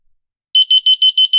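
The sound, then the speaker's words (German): An acoustic orientation beacon just behind a hotel room door, triggered by pressing the second button on a handheld remote, sounds after a brief silence, emitting six rapid high-pitched beeps in a steady, evenly spaced rhythm, loud and clear with no voices. “Und jetzt drücke ich einfach die zweite Taste, weil da ist der Empfänger direkt hinter meiner Tür.”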